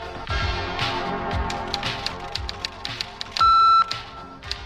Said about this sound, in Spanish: UVB76 es el indicativo de una emisora de onda corta que es conocida por muchos aficionados del medio como el timbre o el zumbador.